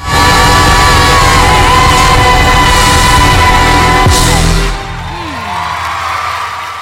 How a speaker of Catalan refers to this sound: Ja ho veieu amb aplaudiments perquè la d'alguna manera embogeix quan escolta aquesta dona cantant.